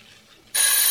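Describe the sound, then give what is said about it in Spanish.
A doorbell rings: after a brief hush, a loud, harsh electric buzz bursts in abruptly and holds steady with a thin high whine until the end, with no one talking. “Timbre.”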